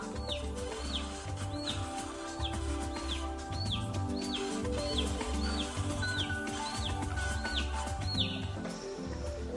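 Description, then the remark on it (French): A chick peeps steadily in desperate calls, roughly once a second, with high bright clear chirps, over a low sustained musical background with no talking. “Pendant 20 minutes, il s'approche doucement mais sûrement de la cage, comme s'il répondait aux appels désespérés du poussin.”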